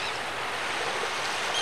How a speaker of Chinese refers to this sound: 沉沉的。沉沉的，你可以听到海浪拍打着海岸的声音。